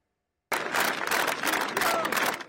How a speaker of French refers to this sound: Des applaudissements et des remerciements.